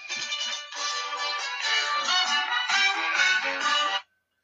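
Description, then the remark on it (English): A mobile phone ringtone plays a bright, looping electronic melody for about four seconds, fairly loud, with no talking, then cuts off abruptly into silence. “So yeah, turn my phone off.”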